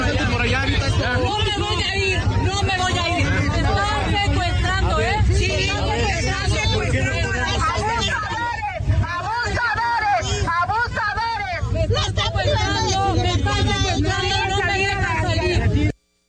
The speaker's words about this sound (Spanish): Bueno, este escándalo que usted escuche, un pleito ahí que estuvo lugar hoy en la central de Abastos, es la alcaldesa de Cuauhtémoc, Sandra Cuevas.